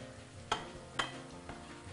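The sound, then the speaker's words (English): Food sizzles steadily in hot oil while a utensil stirs it, with sharp scraping clicks against the pan about every half second over the constant hiss. No voices. “These are going to cook 30 seconds to 1 minute. We're just going to continue to stir them in the oil.”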